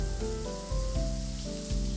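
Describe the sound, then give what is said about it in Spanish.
A bathtub at home fills with hot water from a running tap, a steady rushing splash of water that continues without pause, with soft music chords shifting underneath. “llegó a su casa y comenzó a llenar su tina de agua caliente.”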